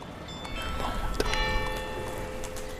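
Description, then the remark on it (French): Outdoor ambience of Calle Paradiso, a very long, very narrow alley facing the sea in Venice: a steady murmur with scattered soft clicks and voices, and sustained bell-like ringing tones drifting in about halfway through. “Ici, c'est Calle Paradiso, une ruelle très très longue, très étroite, face à la mer, à Venise.”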